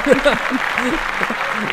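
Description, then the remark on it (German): A steady wash of audience applause welcoming a guest, dense, crackling clapping throughout, with voices calling or laughing over it. “Applaus!”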